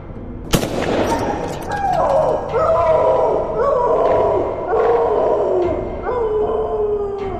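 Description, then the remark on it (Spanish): A single sharp gunshot cracks out at a dog, which at once runs off howling in pain: long, loud, wavering cries that rise and fall repeatedly and continue steadily to the end. “lo que provocó que saliera huyendo, mientras lanzaba un tremendo aullido.”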